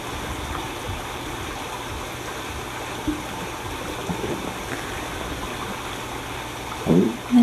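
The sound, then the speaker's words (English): A steady, continuous rush of flowing stream water, soft and even throughout, with a brief louder ripple near the end and no voices. “noticing the sound of water begin to pass through your body.”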